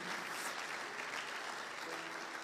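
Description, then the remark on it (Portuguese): A crowd claps steadily and continuously, a dense wash of applause that holds an even level from start to finish with no pauses. “Pode aplaudir você que ameaçou.”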